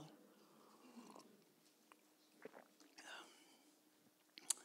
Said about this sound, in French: Alors, je vais prendre une petite gorgée d'eau.